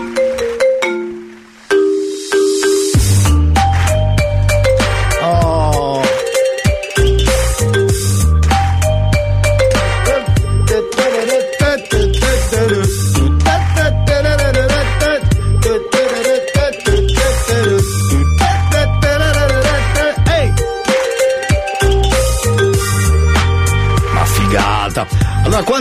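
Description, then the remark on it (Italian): A radio station's own phone ringtone plays loudly on its own, a few simple tones opening before a steady electronic beat and thumping bass kick in and continue without a break. “Ed eravamo arrivati alla suoneria, ve la faccio sentire subito.”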